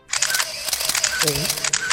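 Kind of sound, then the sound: household object, camera shutter click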